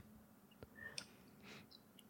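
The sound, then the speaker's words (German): A few light clicks and clatters of dice tumbling across a table, rolled for a trading check in a tabletop role-playing game, spaced over about two seconds, quiet, with no one speaking. “Okay, dann würfel mal bitte auf deinen Handelnwert.”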